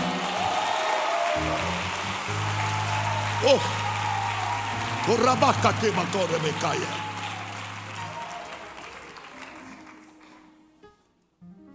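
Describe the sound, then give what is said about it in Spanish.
A church audience claps loudly and steadily for the Lord during a sermon as a dense wash of applause, with a voice calling out over it and a low sustained tone underneath, before the clapping fades away. “Aplauda fuerte al Señor.”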